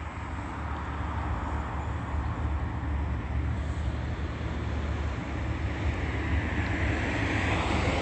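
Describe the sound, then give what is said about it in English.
A large commercial Bud Light truck rumbles steadily as it crosses going westbound, its deep, loud engine drone holding an even level throughout with no one speaking. “Bud Light crossing path going westbound. That's a large commercial truck.”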